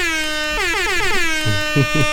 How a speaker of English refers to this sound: We and, and while we looking for this last topic, man, air horns for Kels.